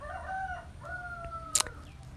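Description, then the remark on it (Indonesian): A rooster crows in one long, drawn-out call that wavers and trails off, followed by a brief sharp burst of noise, heard over a low background rumble with no one talking. “bangsat memang nih ayamnya tapi ya sudahlah daripada merduliin ayam gitu kan nanti ayamnya juga kegeeran gitu kan nanti dia jatuh cinta sama aing”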